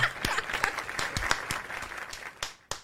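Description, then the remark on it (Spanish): Audience applause: a dense wash of many hands clapping with sharp individual claps poking through, then thinning out to a few last scattered claps. “Fuerte el aplauso.”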